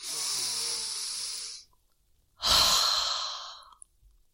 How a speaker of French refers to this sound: Et puis, euh, reprendre une inspiration plus profonde.